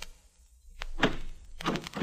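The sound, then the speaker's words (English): A stuck door being pushed open, moving only about two inches: a sharp click, then two heavy, scraping thumps as it's shoved, with no voices. “Now I'm going to try the door.”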